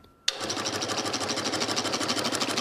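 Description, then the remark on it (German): A film perforating machine starts abruptly and runs with a fast, steady mechanical clatter, evenly repeating punches with a hissing, bright edge as it punches small sprocket holes at a set spacing into cut film stock, continuing loudly without any voices. “ich muss kleine Löcher in einem ganz bestimmten Abstand einstanzen und das macht die Maschine”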